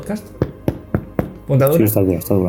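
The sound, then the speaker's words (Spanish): Four firm, evenly spaced knocks on a hard zippered drone case, the same size as the drone, each a short hollow thud, before someone begins talking. “funda, ponemos el dron aquí, mide lo mismo que el dron, se cierra con, con cremallera, funda dura, para, para que lo escuchen los del podcast.”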